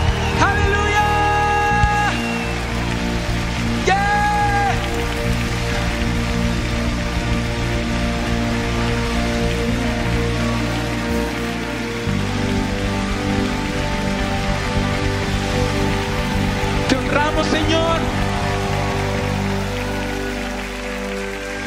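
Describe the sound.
An audience claps steadily for about twenty seconds as applause to the Lord, a dense crackling wash of applause over sustained organ-like chords, with occasional cheers and raised voices mixed in.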